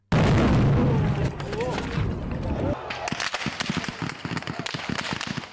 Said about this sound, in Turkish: Şu anda kalabalığın üzerine ateş açılıyor. Yıl 2016, 15 Temmuz gecesi.